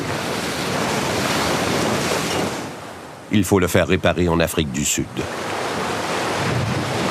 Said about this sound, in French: Une vague frappe le bateau d'Autissier et casse un de ses gouvernails.